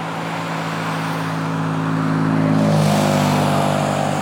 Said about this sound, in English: can hear the roar of the highway.